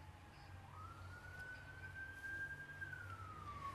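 A police patrol car siren wails steadily, its tone rising and holding high before starting to dip as the vehicle goes by, over a low rumble of traffic and background noise.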